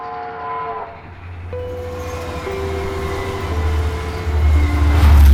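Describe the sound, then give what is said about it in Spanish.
An express train roars past with a heavy, rising low rumble, its horn sounding in long steady tones that step down in pitch, and the noise swelling louder toward the end. “Y un rápido iluminado, rugiendo como el trueno, hizo temblar la cabina de agujas.”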